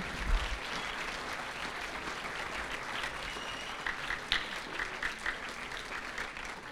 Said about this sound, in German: Ah, wir klatschen nochmal.